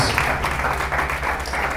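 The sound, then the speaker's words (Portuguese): An audience applauds God with joy in the name of Jesus, a dense, steady wash of many hands clapping at once over a low, sustained hum. “Aplauda Ele com alegria, em nome de Jesus.”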